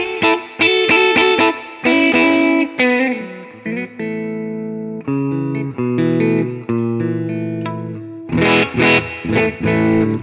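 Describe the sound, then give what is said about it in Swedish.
Electric guitar fitted with real PAF pickups, owned for about ten years, played with a driven, slightly distorted tone in one pickup position and then the middle position: quick strummed chords and single notes, then sustained ringing chords, ending in bright rhythmic strums. No one speaks. “den här gitarren som jag spelar på nu har haft då i säkert tio år riktiga paffar”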